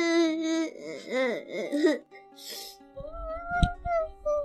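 A young child cries in high, wavering wails for about two seconds, followed by a breathy sob and quieter whimpering mixed with a few low bumps and a sharp knock.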